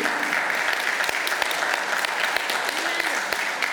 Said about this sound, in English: Thank you. You guys just made some of the Baptists very uncomfortable, but you're allowed to talk and clap in church.